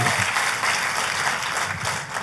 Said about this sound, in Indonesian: Katakan amin. Tepuk tangan yang paling meriah buat Tuhan.